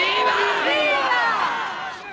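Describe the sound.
A large crowd in the streets of Santiago, at a banned gathering, shouts and cheers slogans in favour of the Communist Party, many voices overlapping in a loud, dense roar that holds steady for a couple of seconds before easing slightly.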